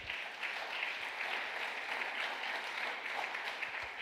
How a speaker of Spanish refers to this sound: Dale otro aplauso fuerte al Señor.